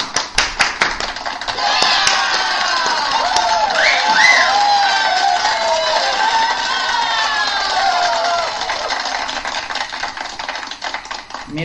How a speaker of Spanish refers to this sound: Espero que disfruten, reciban con un fuerte aplauso. Reciban con un fuerte aplauso a Nani Luna.